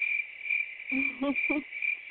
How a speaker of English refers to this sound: There you go. Dumb crickets. Give them them damn crickets.